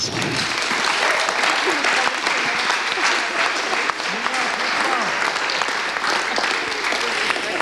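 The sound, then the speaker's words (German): Sustained audience applause for six people who volunteered to answer questions, a dense steady wash of many hands clapping at an even loudness for several seconds, with faint voices mixed in beneath it. “Das war richtig genial, ähm, dass ihr euch, sechs, dass ihr euch gemeldet habt, um Rede und Antwort zu stehen das ist mal ein Applaus wert.”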